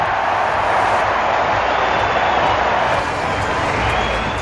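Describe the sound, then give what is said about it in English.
A large home crowd at a cricket stadium, on their feet after Travis Head hits a six, roars and cheers loudly in a continuous, dense wall of noise that holds steady for several seconds, with no individual voices standing out. “The home crowd on their feet now.”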